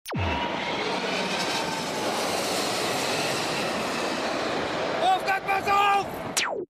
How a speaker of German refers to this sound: Es geht darum, dass zwei Männer vor einer Landebahn stehen und zuschauen, wie ein Flugzeug landet.